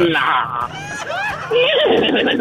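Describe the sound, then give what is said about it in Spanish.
A person loudly imitates a horse's whinny, a quavering, rising-and-falling vocal neigh that wobbles through several pitch swoops over about two seconds. “el relinchido”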